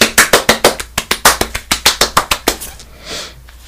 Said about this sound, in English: So I'm going to take a minute to give you a round of applause and encourage you to give yourself a pat on the back.